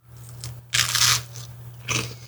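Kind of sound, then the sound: food or drink, crunching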